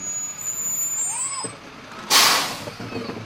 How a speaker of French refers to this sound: Quand le camion citerne arrive dans ce quartier populaire au nord de Monterey, les femmes et les enfants se précipitent hors de leur maison avec toutes sortes de bonbonnes, seaux et cuvettes.